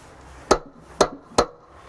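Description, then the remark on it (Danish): Three firm, sharp knocks on a door, the last coming a little quicker than the first two, with quiet room tone in between and no voices. “Det er på grund af hende, at jeg står her og banker på.”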